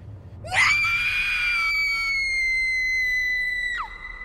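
A woman at the parking lot of a village community hall during a party lets out one long, loud, high-pitched scream that rises sharply, holds steady for about three seconds, then breaks off abruptly. No one speaks.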